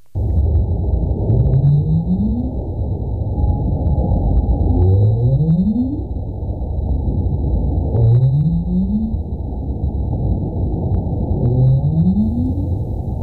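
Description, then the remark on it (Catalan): Low, rising whale calls repeat at a steady pace, four upward sweeps roughly every three seconds over a constant deep underwater rumble, with a faint steady tone high above. “s'han d'aparellar amb rorquals, donant a llum balenes mestisses capaces d'interpretar totes dues llengües cetàcies, la de la balena blava i la del rorqual.”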